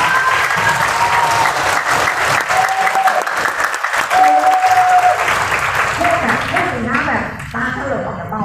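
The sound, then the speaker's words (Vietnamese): An audience bursts into sustained applause, dense clapping for several seconds, with a few voices and cheers rising over it near the end. “bạn có hào hứng không à hào hứng thì vỗ tay”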